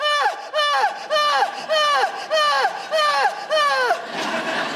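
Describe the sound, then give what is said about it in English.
A voice imitates loud, melodramatic sobbing: about eight wailing cries in a steady rhythm, each swooping down in pitch, loud with no other talk. “we also all have the same way of crying this like very loud melodramatic way of crying that I like to call Greek tragedy crying.”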